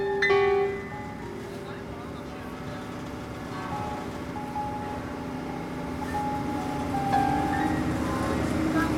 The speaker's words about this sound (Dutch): We zijn nu op de Vaporetto op weg naar mevrouw Schoenberg Nono.